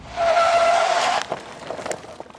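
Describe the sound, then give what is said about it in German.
A car brakes hard, its tires squealing loudly for about a second before it lurches to a stop, followed by a few soft clunks and settling noises. “Er stoppte abrupt den Wagen.”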